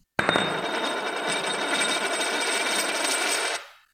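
A very thin gold bullion coin engraved with a double bass, cellos, violas, a violin, a horn, a bassoon and a harp is dropped and rings out with a bright, sustained metallic tone, high overtones shimmering for over three seconds before quickly fading. No voices are heard.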